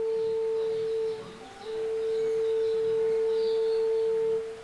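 A single sustained horn tone blares steadily as the call to a music and dance rehearsal ahead of village festivities, briefly dipping and breaking off near the middle before resuming for a long held note, with faint outdoor ambience behind it.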